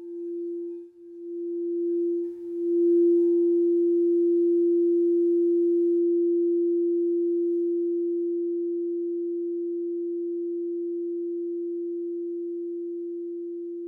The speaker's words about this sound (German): Die Meditation beginnt und endet mit dem Klang einer Kristallklangschale, die auf das Herzchakra gestimmt ist.